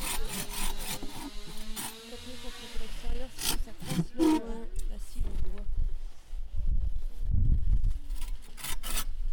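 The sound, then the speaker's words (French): Rhythmic rasping strokes of a saw cutting through wood while felling a tree at a collective farm in Ardèche, France, fairly loud and steady, with indistinct voices murmuring beneath the sawing; the woodcutting is done by a women-only group of 16. “Ça, c'était il y a quelques jours, une coupe de bois en non-mixité dans une ferme collective ardéchoise.”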